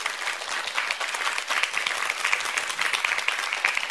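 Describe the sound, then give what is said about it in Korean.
An audience at a talk about disabled people claps for a photo from abroad of a disabled person rock climbing, a dense, even patter of many hands held at a fairly loud level for the whole stretch, with no voices standing out. “저거는 외국 사진인데 박수 한번 주세요.”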